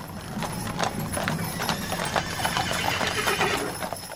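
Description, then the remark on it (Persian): Horses' hooves clip-clop in a fast, steady stream of sharp overlapping knocks as riders set out on horseback at sunrise to defend a fort, fairly loud over a constant background hiss, with no one speaking. “روز بعد همین که صبح طلو کرد سوار بر اسب شدن و با 313 نفر از یارانشون با فریاد یا صاحب و زمان برای دفاع از قلعه بیرون رفت.”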